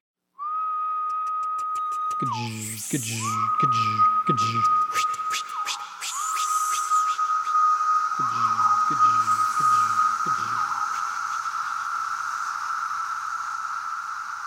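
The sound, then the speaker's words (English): A dense periodical cicada chorus from three different species: a steady, shrill droning hum with bursts of pulsing, throbbing calls and sharp wing-flick clicks layered on top, loud and continuous throughout. “But the bottom line is that notorious noise is this jumble of calls and wing flicks from three different species.”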